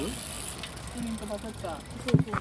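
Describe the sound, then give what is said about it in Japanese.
Outdoors on a cycling road, a bicycle rolls past with a soft whir of tyres and a brief clatter near the end, while faint voices murmur in the background. “あ、自転車来ます”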